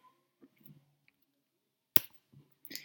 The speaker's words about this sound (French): Prends une feuille blanche et dessine-y ton polygone. Puis Plie cette feuille.